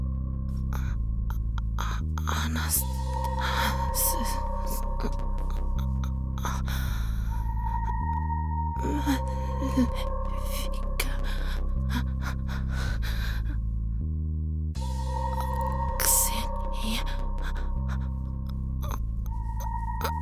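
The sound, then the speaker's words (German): Strained, labored gasping breaths of a woman recur in slow heaving cycles, fairly loud, over a steady low droning tone with faint higher whines. Nobody speaks. “Das Atmen fiel ihr schwerer, immer schwerer.”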